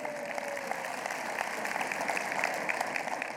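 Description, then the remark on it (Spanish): A church audience applauds the Lord during a service, a dense wash of many hands clapping at an even, sustained level throughout, with no voices standing out. “de un aplauso al Señor que se lo merece.”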